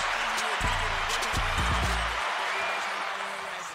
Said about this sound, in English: That's right. Yeah. Round of applause for my mother support.